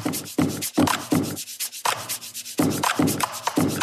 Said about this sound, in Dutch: Deze geluiden worden gemaakt door de drone op de grond te zetten, door hem in te klappen, er overheen te wrijven. En dan krijg je dus dit.